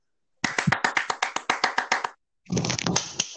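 Steady, rhythmic hand claps, about a dozen sharp crisp slaps, stop briefly and then give way to a denser, noisier burst of applause. There is no talking.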